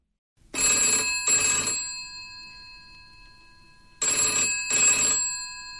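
telephone ringing

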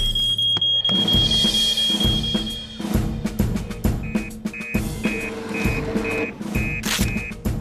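alarm ringing

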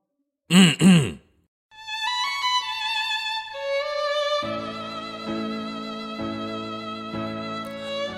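throat clearing

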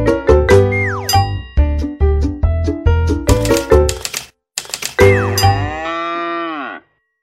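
typewriter keys clacking

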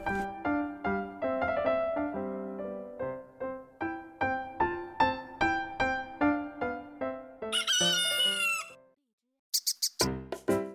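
rooster crowing

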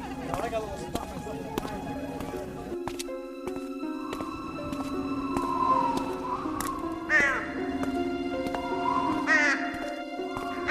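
crow cawing

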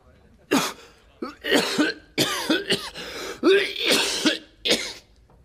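man coughing repeatedly

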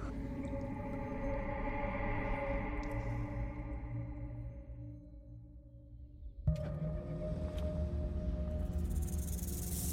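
snakes hissing

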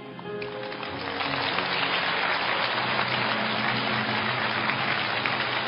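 audience applause

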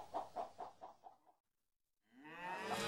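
cow mooing

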